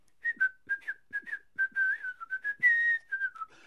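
A small white-haired cobbler, leaning against a roadside marker stone on the road to Gré in the late afternoon, whistles a lively, bouncy tune in short clipped notes that rise and fall, clear, while cheerfully hammering a shoe sole, giving a few soft low thumps.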